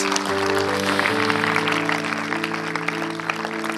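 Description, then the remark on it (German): Audience applause at a church service after a prayer, a dense, steady clatter of many hands clapping for the whole few seconds, with sustained keyboard chords holding underneath. “Komm, lass uns mal einen Applaus geben.”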